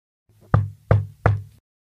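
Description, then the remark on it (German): Three firm knocks on Michael's door in the town of Haven, late in the evening, in an even, steady rhythm, each a sharp thud with a low wooden resonance, isolated with no other sounds. “Als es spät wurde und nur noch vereinzelt ein paar Kinder im Teenageralter durch die Straßen von Haven zogen, klopfte es dreimal an Michaels Tür.”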